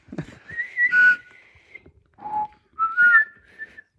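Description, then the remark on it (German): A person whistles a short, wavering tune alone, in a few breathy phrases with brief pauses between them, moderately loud. “Ja, wenn ich so pfeife, kann ich nicht.”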